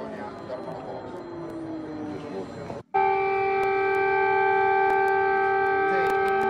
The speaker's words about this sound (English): I warned you, real air raid sirens are coming. Now, those are the real air raid sirens.